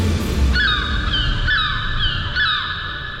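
Seagulls cry out in three loud, nasal calls spaced about a second apart, each sliding downward, over a steady low rumble like wind or surf.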